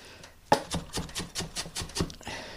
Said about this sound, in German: Ich habe Öl in den Topf, schneide mir die Zwiebeln in feine Würfel.